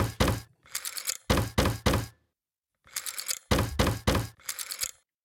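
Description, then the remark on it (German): Rapid mechanical clacking like Morse code keying, loud short and longer bursts in two quick groups separated by a brief pause, with no voices. “Oder der, der Mechanismus, den wir hören, ist vielleicht das vielleicht. Ein Morsecode. Ah, stimmt, ihr hört klackern.”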